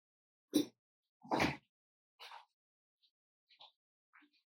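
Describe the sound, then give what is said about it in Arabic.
A window is handled and shut: a sharp knock, a longer sliding rumble, another clunk, then a few faint clicks and taps fading out. No talking. “معلش ثانية واحدة كده هقفل الشباك برضه عشان في في دوشة كده برضه”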